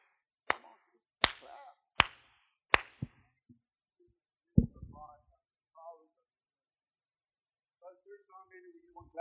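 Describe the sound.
Four loud, sharp hand claps in a steady rhythm, then a short pause and one more clap, followed by a voice speaking.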